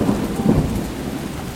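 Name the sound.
rain with thunder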